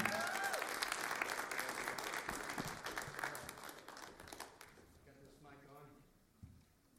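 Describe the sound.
An audience applauds with dense, steady clapping that gradually fades over several seconds, ending with scattered claps and a few voices as the room settles.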